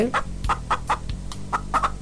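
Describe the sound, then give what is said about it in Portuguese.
A chicken clucks in a quick, steady series of short bursts, about eight or nine in two seconds, over a low background hum. “Isso mesmo, frango.”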